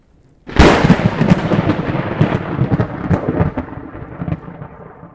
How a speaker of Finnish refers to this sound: ukkosäällä salamoinnissa purkautuu valtava määrä sähköä. Salamat ovat näyttäviä ja pelottavia sähköpurkauksia.